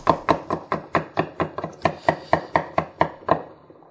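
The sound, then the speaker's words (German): A knife chops an egg into small cubes on a board, about fourteen quick, even taps in a steady rhythm, crisp, with no talking. “Ähm, ja, die Gurke, ähm, die, das Ei auch in Würfel.”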